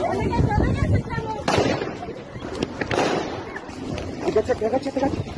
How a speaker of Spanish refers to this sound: Entre gritos y golpes se escucharon también detonaciones de arma de fuego